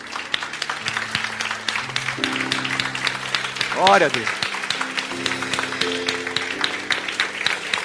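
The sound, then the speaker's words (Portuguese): An audience applauds the Lord steadily throughout at a church service, dense crackling claps, while sustained low musical tones hold underneath and a voice briefly calls out over the clapping midway. “Você pode aplaudir o Senhor, querido?”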